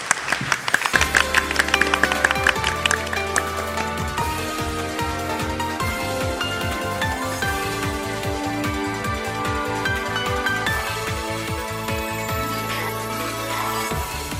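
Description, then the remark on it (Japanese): A crowd applauds steadily and loudly for the whole stretch, a dense wash of clapping mixed with upbeat music and a pulsing bass line, with no one talking. The applause is for Softmax president Tsutomu Matsushima at the end of the Softmax IR seminar. “ソフトマックス IR セミナーご出演は証券コード3671東証グロース上場ソフトマックス代表取締役社長松島努さんでした皆様盛大な拍手をお願いいたします”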